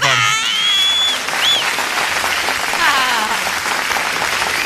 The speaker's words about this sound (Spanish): Papi, mira, ¿sabes qué? Te ganaste mis aplausos,